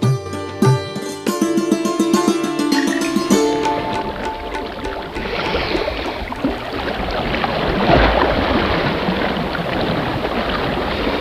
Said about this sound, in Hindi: इस मूसी नदी को देख रहे हो हाँ सर और इसकी ठाठे मारती लहरें नदी के किनारे इन लहरों को सुनने पर लगता है जैसे जल तरंग बज रहा हो कोई मधुर गीत बज रहा हो जी इसकी लहरों में जीवन का गीत है